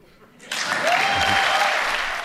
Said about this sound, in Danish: Der er masser af klapsalver fra borgerne med de hvide due i DGU, DGI-huset i Vejle